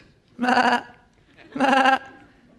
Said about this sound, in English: Even the voice of sheep. It's pretty pathetic.